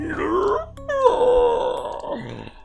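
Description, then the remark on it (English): A voice imitates an infected zombie horse with a saddle on its back, giving a drawn-out, wavering groan that rises and falls in pitch across two long moaning bursts, fairly loud with no other sounds around it. “But as we, like, cut out from the fire station, there's still one infected zombie horse with a saddle on its back that's just.”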